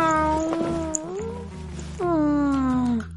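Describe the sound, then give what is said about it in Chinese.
A voice imitates a cat with two drawn-out, high meows, the first long and wavering, the second sliding downward, over a steady low musical background; it is the cat character Tang Maomao in a children's story, meowing as it says it will get up in the morning. “今天要早起，嗯，喵喵喵！我要起床。”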